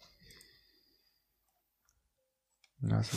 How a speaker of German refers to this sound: Ich klicke mal auf gemeine Meerschweinchen.